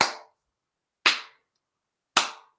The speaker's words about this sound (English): Good job. That's how you clap for the Krampus.